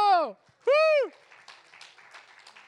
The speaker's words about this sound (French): Est-ce qu'on peut l'applaudir Bravo